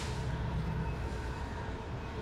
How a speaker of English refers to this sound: There goes the train. How, what train? train. How, how many? How many trains is that tonight? That's a like million. like six trains Yeah. tonight. Seven.